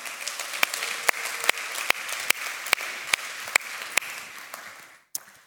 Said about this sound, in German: Hey, komm, wir geben den Paaren mal einen riesen Applaus. Danke.